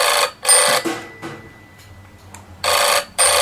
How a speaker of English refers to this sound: So sorry about the phone. Hold on just a minute while I get that.